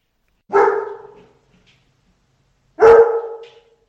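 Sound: guide dog barking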